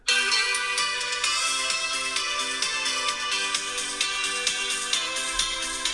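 A mobile phone rings with a bright, tinny music ringtone, a steady melodic tune playing loudly and continuously without any talking.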